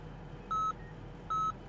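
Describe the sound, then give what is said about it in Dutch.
Two steady electronic beeps, evenly spaced and fairly loud, from medical monitoring equipment inside a moving ambulance carrying an injured man on an infusion, over a low rumbling background. “Hij hoort allemaal piepjes, heeft een infusie in zijn arm en vraagt aan de medewerkers: Ben ik dood?”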